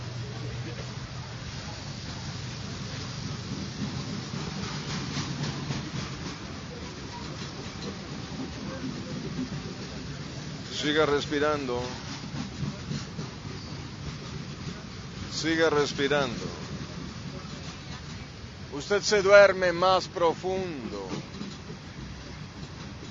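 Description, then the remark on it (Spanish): A train rolls along the tracks with a steady, low rumbling roar that continues throughout, while a calm voice speaks over it in short, repeated phrases. “¡El tren! ¡Ahí viene el tren!”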